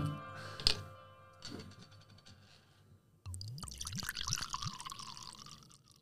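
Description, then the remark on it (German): Wine is poured into a glass: after a couple of clinks, a steady gurgling stream with rising bubbly tones fills the glass, loud and continuous without any talking. “Ah, nächstes Glas.”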